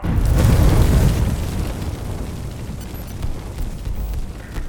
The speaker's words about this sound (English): Uh, yeah, before the explosion, the guy had managed to free his hand and pull the pin at, on the armrest. Can you see anything now after the explosion?